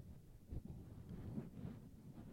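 Muffled rustling and scraping of a microphone wind sock rubbing right against the microphone, a low rumbling rub with a few scratchy bursts, fairly quiet and continuous, with no voices.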